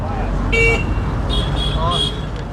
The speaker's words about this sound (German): bevor er einmal kräftig auf die Hupe drückt und sich in den dichten Straßenverkehr einfädelt.